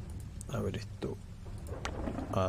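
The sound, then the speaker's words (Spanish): Someone vocally imitates an arrow with a few short, breathy whooshing bursts spaced across a couple of seconds, over a low rumbling background. “así sonaría tu flecha.”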